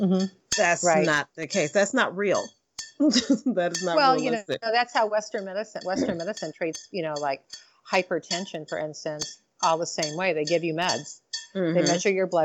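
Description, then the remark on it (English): A dog laps water from a bowl in the background, with scattered light clinks of metal against the bowl beneath steady conversation between people talking. “That's my dog drinking out of a water bowl.”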